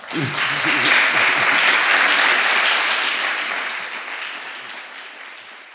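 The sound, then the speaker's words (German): A crowd applauds with dense, steady clapping that starts at full strength and gradually fades over several seconds, with faint voices mixed in near the beginning. “Und mit diesem schönen Applaus sind wir am Ende dieser Folge.”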